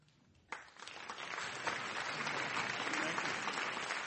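Audience applause at an Intelligence Squared US debate, given for Robert Rosenthal, bursts in after a brief quiet moment and swells into a steady, dense clatter of many hands clapping, holding at a fairly loud, even level to the end.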